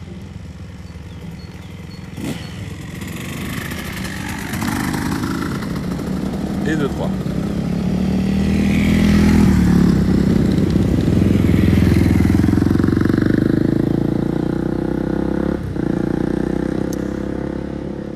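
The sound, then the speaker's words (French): Three motocross motorcycles pass by one after another in a hilly area, their engines revving up to a loud peak midway and then fading off, while a voice speaks briefly over the noise. “Et à ce propos, il existe un autre point de vue à cette histoire, c'est le jeune homme, comme là il y en a trois qui viennent de passer, qui ont investi leurs économies dans une super motocross parce qu'on est dans un endroit vallonné magnifique”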